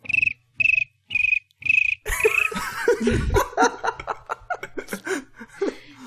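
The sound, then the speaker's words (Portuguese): A voice mimics a cricket with four short, evenly spaced high-pitched chirps, fairly loud, followed by an outburst of laughter and lively chatter. “Tá, tá é grilo, mas tem... helicóptero, eu já sei algumas.”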